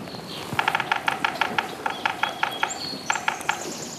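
A large woodpecker hammers out bursts of sharp, rapid knocks in several short rhythmic runs, clear above a steady rushing outdoor background, in a maple and oak forest beside a cold snowmelt river in spring.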